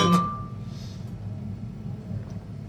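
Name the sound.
beer glasses clinking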